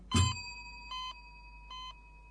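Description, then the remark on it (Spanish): An electronic elevator chime sounds three times at an even pace as the elevator door opens, the first tone louder and joined by a brief low thud, against a faint steady hum with no voices. “Se oye una campana y la puerta se abre.”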